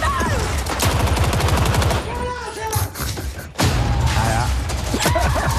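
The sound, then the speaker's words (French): Loud, dense bursts of rapid automatic gunfire with heavy booms from the video game Battlefield, a brief lull near the middle before the barrage resumes; faint voices and shouts mixed beneath the shooting. “Pour ceux qui connaissent pas, je vous propose de plonger dans l'atmosphère de Battlefield et monter le son parce que alors là, vous allez en prendre euh, plein les oreilles.”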